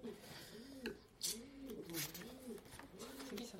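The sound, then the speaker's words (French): A voice imitates a pigeon's cooing: a steady run of low, rolling, throaty coos repeating in a rhythmic pattern, fairly loud, with faint background noise. “Moi, tous les jours, il y en a un qui vient faire ça.”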